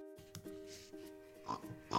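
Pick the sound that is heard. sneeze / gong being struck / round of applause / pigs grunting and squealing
pigs grunting and squealing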